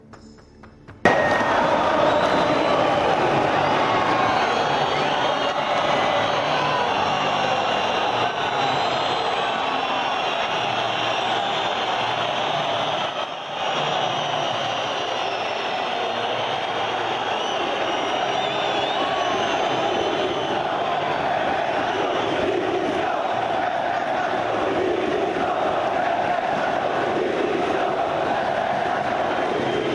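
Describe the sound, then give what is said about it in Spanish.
A huge crowd of Sevilla fans at the Sánchez Pizjuán stadium chants loudly and continuously before Sergio Ramos is presented over the public address, a dense roar of many voices that holds steady almost the whole time, with only a brief dip midway. “cuando han, ha sucedido esos cánticos ha entrado la megafonía para rápidamente presentar a Sergio Ramos e intentar eh, evitar que siguiesen”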